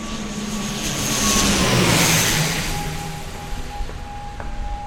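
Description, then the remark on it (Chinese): An airplane engine roars steadily as the plane begins its descent toward Kinmen Shangyi Airport on a sunny day, swelling louder over the first couple of seconds before easing off slightly, with thin whining tones running through the broad rumble. No one speaks. “引擎声随着机长广播表示高度即将开始下降，而渐渐变大。”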